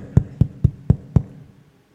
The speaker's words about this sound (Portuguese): Pedro está batendo na porta.